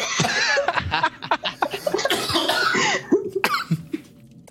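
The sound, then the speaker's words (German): A person coughs repeatedly and clears their throat, fairly loud, in uneven bursts mixed with some breathy laughter, easing off toward the end. “Ich habe jetzt einen Frosch im Hals, verdammt.”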